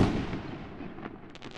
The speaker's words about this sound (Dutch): Waarom denk je immers dat die honden zo gestresseerd zijn bij het afsteken van vuurwerk en het op een lopen zetten lang vooraleer jij de finale knal hoort. Zij horen al het geluid van een veel hogere frequentie dat vrijkomt nog voor de grote knal.